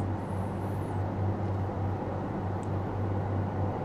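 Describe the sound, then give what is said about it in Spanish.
A quiet daytime street in Tokyo with a steady, low rumble of passing cars and a constant engine-like hum, even throughout, with no voices or horns. “El sonido simplemente la huella que dejan los coches, los frenazos.”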